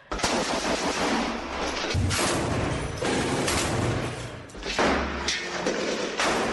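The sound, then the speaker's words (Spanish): Dense gunfire and heavy explosive thuds crash through the streets of Khan Younis, with loud overlapping bursts and booms sustained almost continuously, no voices audible. “Mientras tanto, este es el sonido de las calles en Can Yunis.”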